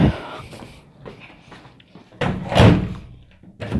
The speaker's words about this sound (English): Okay, I just closed the door.